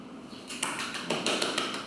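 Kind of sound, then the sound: crowd, applause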